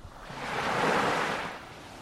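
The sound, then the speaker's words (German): A wave washes in on a beach on Ibiza and swells over about two seconds, a broad hissing rush of surf that peaks midway and eases back, with a steady roar of the sea behind it and no voices. “Ich bin gerade ähm, zwischen zwei Gigs am Strand ein bisschen.”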